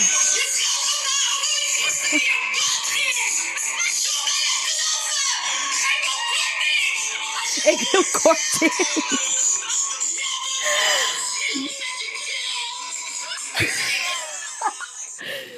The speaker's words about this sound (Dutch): Ja, wat er dus gebeurde Jij was... maakte meteen death metal, Ja, hij zegt toch heel de tijd, je moet me niet schreeuwen. Dus jij ging schreeuwen.